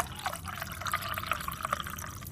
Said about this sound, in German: hier kann man vielleicht hören, teste jetzt heute ein Sample für die Bombe 2.0 und zwar als French Press Variante und ich habe jetzt auch schon alles vorbereitet, gieße es ein.